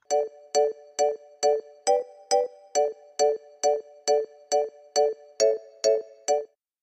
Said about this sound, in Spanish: Tiene buen inicio, o sea, es un trap, por lo que puedo escuchar es un trap y tiene un súper buen, buen, buen inicio, loco.